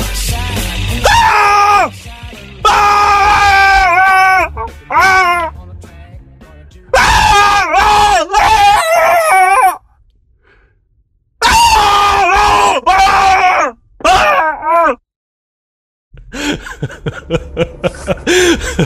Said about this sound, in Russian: я немного пустил крика в эфир для того, чтобы люди немного там пришли в себя, что мы переключились уже с музыки э, и таким образом дополнительно напомнил о том, что у нас сегодня тема дня ужасы.